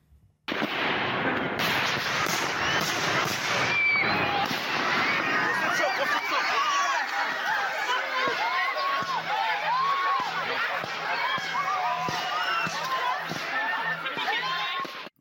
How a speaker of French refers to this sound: vous avez entendu les, les, les cris et, et, la panique autour.